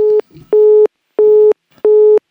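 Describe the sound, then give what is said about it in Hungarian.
A telephone busy tone after a caller hangs up the phone, repeating in steady beeps: four loud, evenly spaced pulses of a single pitch with short gaps between them, with faint rustling in the pauses. “Eh, Dániel, itt Fennforgás van, mert hogy letette Kirchner Péter a telefont, e, és én most így lehúztam a, a mikrofont, de nem tudom, hogy mi történik.”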